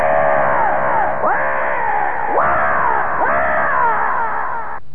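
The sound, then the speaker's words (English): A person imitates the screech of Rodan, the giant flying monster: four loud, harsh, drawn-out shrieks that sweep downward in pitch, repeated back to back with no other sounds. “Let's give us a little uh, a little practice Rodan sound here.”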